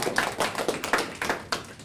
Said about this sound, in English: welcome. get a clap on that. Yeah.